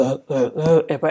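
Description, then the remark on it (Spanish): A person imitates a dog's cough with about five quick, throaty voiced bursts in a rapid hacking rhythm, fairly loud, with no other sounds around it. “Eh, eso es un perro tosiendo.”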